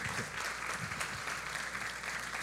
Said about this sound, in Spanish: Pido un aplauso fuerte para ellos dos. Y para todo el equipo de voluntarios.